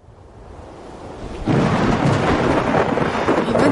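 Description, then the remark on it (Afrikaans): A low rumble swells for over a second, then thunder breaks into a loud, sustained roll over a steady hiss of heavy rain on a dark, stormy night. No voices. “Dit was 'n donker en stormagtige nag.”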